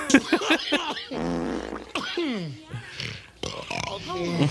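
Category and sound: human body sound, farting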